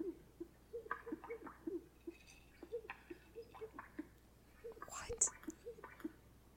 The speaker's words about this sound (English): This male greater sage grouse is trying to attract a mate.